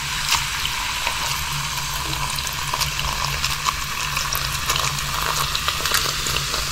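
A continuous bright, crackling fizz of a carbonated soft drink, dense tiny pops and hiss sustained steadily for several seconds with no voices, over a faint low hum.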